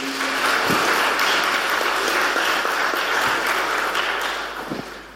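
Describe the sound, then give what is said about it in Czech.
A church audience claps steadily for the day's preachers for several seconds, a dense wash of many hands at a fairly loud, even level that tapers off slightly at the end, with no one speaking. “Takže já moc děkuji a myslím, že můžeme zatleskat našim kazatelům dnešní.”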